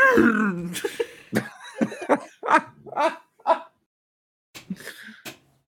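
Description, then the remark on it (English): A person imitates a horse, showing how a Bronco sounds, with a loud series of whinnying, snorting vocal bursts, fast and choppy at first, then a brief pause before a couple of softer neighs. “why is everybody making horse noises?”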